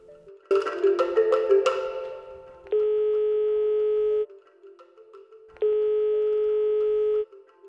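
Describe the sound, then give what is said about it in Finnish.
An outgoing phone call's tone, placed from Fida and Radio Dei: a brief jumble of dialing noises, then two long, steady telephone tones separated by a pause, clear with no voices. “soittaa täältä Fidalta ja Radio Deiltä.”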